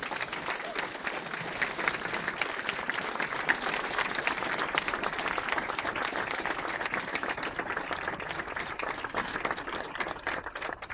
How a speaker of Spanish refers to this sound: Y un aplauso también más fuerte también para todos ustedes, por favor.